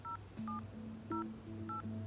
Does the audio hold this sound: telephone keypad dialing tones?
yes